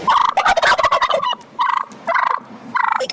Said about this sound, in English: Over the past few weeks, she says this pack of turkeys has gone wild and they've become a big burden in her neighborhood. We've had upwards of 20 of them